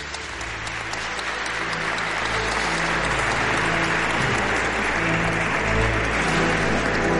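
Sustained applause from an audience, a dense, steady clatter of many hands clapping that holds at a fairly loud level throughout, with a low hum underneath and no one speaking.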